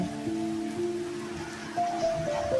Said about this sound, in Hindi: मेरे को कभी कभी जब वो बारिश की आवाज़ में सुनती हूँ ना मेक्स मी काम it makes me feel I am connected with nature बहुत ज़्यादा कनेक्टेड होने की तरह महसूस होता है मेरे को अभी भी हो रहा है मेरे को बारिश हो रहा है